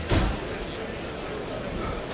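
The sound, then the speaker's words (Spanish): The heavy wooden bull pen gate of a bullring bangs open with one loud, low thud near the start as the second part of the bullfight begins, followed by a steady wash of crowd murmur and ambient noise. “Bueno, se abre la puerta de Toriles y va a comenzar la segunda parte de la corrida.”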